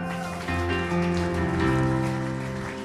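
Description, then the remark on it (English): A church audience claps steadily to honor the church's leaders, its pastors, in a dense, continuous wash of applause, with sustained musical tones playing underneath throughout; no one speaks. “But I, I love being here and I just want you if, if just for a little bit, to, to if you can honor with some clapping your leaders”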